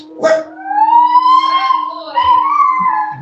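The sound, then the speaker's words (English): A dog howls in two long, drawn-out wails, the first rising slowly and holding, the second following after a brief break. A faint steady hum sits underneath. “That's my dog. Ignore him.”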